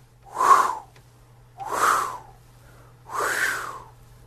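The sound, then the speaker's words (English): A voice imitates the wingbeats of a raven flying overhead in a quiet, snowy outdoor setting, with three slow, breathy whooshes, evenly spaced about a second and a half apart, each swelling and fading, fairly loud against quiet. “a raven was flying overhead. And as I looked up and I, I watched the wings and I could hear the”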